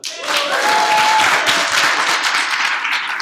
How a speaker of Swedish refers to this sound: En applåd!